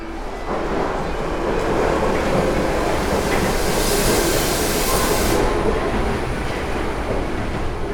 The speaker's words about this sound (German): Alle drei Minuten kommt eine Bahn, nimmt die Fahrgäste auf, fegt den Bahnsteig leer. Mit was für einer Wucht der Zug aus dem Tunnel in die Station brettert.